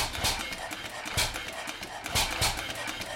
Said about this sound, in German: Das ist nicht nur Musik. Das ist nicht nur ein Motorradmotor und schon gar nicht irgendeiner. Das ist eine Sensation. Ein liegender Zweizylinder mit 1500 Kubik. Viertaktmotor. Viertaktmotor.